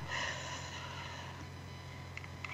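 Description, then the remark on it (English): A slow, deep breath drawn in and released during a guided breathing exercise, an airy, breathy rush that is strongest at the start and then settles into a steady soft exhale. No one speaks. “keep breathing. This type of breathing helps bring you present and brings oxygen to every cell, every cell in your body.”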